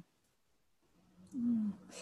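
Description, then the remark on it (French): A pet cat lets out a single short, low meow that slides downward in pitch, fairly loud after a stretch of near silence, followed by a brief breathy rustle. “Désolée, mon, chat nous avait laissé tranquille jusqu'à présent. il a décidé de nous rejoindre.”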